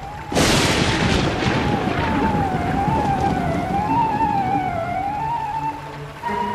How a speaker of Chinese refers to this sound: 天空呈现暗红色，不时亮着一道道闪电，然后又是暴雷轰隆而来。